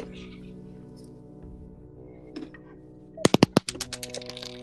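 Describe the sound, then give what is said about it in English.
Dice are rolled for an intelligence investigation check, giving 11, clattering across a hard surface near the end: a burst of several sharp clicks followed by quicker, softer taps as they settle, over a steady low background hum. “Let me get my dice.”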